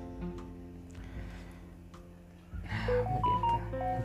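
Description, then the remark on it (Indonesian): A muted phone's electronic notification tones ring out twice as a quick run of clear, beep-like notes, following a couple of seconds of low background hum with no one talking. “HP di mute bunyi emang bunyi cok dua kali cok”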